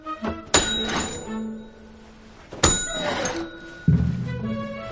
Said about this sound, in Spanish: Oli aparta el timbre, se quita el sombrero y lo golpea sin querer.